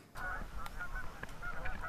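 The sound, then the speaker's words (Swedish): Geese honk repeatedly in a busy, overlapping chorus on the swimming beach of Lappträsk church village, their nasal calls continuous over a low outdoor rumble. “Där är simsäsongen nu över för i år, det här på grund av att gässen har tagit över stranden.”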